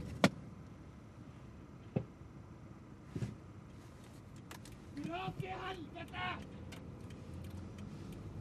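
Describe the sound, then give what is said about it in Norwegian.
A car idles and rumbles low as a few sharp clicks and a thump ring out, like a door opening, with muffled voices briefly rising in the middle, as a passenger jumps out of the car on a bridge over railway tracks. “har hoppet av bilen på broen over jernbaneskinnene. Det er for mye trafikk til at Dag kan bli stående”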